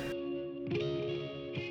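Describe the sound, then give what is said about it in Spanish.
A distorted electric guitar rings out with sustained, buzzing chords, a fresh strum hitting partway through and another near the end, thick and effect-laden with no voices. “Y, y me enseñó, y me dejó tocar su guitarra y me con distorsión y me maravillé.”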